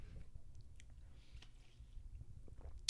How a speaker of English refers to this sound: All right, taking a sip of water.